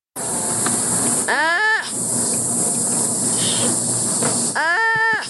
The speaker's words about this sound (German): so klingen Faultiere.